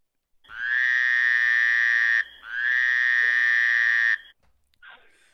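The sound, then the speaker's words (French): A frog croaks in two long, loud, buzzing calls, each lasting nearly two seconds with a short gap between, followed by a faint rustle. “Elle est là, la grenouille.”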